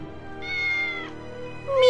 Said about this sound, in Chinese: 喵，喵。啊，那是什么？ 哦，是谷仓里的猫在伸懒腰吧。也许是他听到老鼠的动静了。